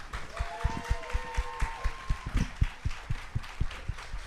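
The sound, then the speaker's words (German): Audience applause with steady, rhythmic claps, even in pace, continuing for several seconds with a faint tonal hum in the background and no speech. The audience applauds a man as he goes to fetch El Elefanto. “Applaus für Nils, der jetzt El Elefanto abholt!”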